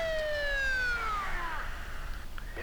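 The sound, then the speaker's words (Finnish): A police car siren wails loudly, its tone sliding steadily downward in one long sweep over a low rumble of background noise, with no one speaking. “Poliisitkin on jo paikalla. Siltä kuulosti.”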